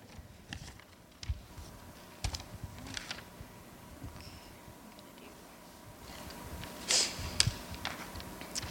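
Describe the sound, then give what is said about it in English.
Fumbling with paper, a book and a microphone: scattered soft taps, bumps and rustles at an irregular pace, fairly quiet, with a brief brighter crinkle toward the end and no talking. “Bear with me as I navigate paper and microphone and book.”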